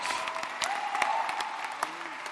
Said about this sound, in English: Come on, somebody, give yourselves a big round of applause out there.